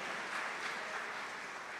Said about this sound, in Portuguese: Eu acho que você poderia dar um forte aplauso a Jesus, porque você está nas mãos do Salvador, aleluia.